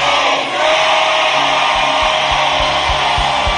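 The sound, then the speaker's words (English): A large audience shouts "amen" together in a loud, sustained roar of many voices, with steady low thumps pulsing underneath. “Say an even better amen.”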